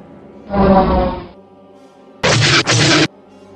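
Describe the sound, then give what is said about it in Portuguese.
Starfighter cannon fire in two loud bursts: a rumbling volley first, then after a short pause a harsher, brighter blast that briefly stutters midway. Dex is firing his cannons at two TIE Fighters. No one speaks. “Diz o Dex enquanto aperta os botões dos seus canhões.”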